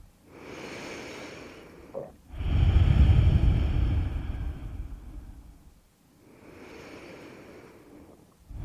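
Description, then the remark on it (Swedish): Three slow, deep breaths drawn in through the nose during a guided breathing exercise, each a broad airy rush lasting a few seconds, the middle one loudest and roughest, with brief quiet gaps between them. No one speaks. “Ett par, tre djupa andetag och se om du kan känna strömmen av luft i din hals.”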